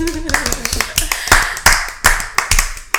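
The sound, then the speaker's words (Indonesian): A short burst of hand clapping from an audience at a talk on relationship goals, sharp, irregular claps mixed together, fairly loud, while a voice speaks briefly underneath at the start. “Yeah, tepuk tangan relationship goals.”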